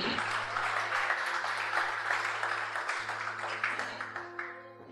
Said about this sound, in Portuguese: Pode aplaudir mesmo o Senhor.